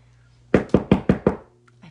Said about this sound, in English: gotta knock on my door so that they know that I'm actually doing something in here and hopefully they hear me.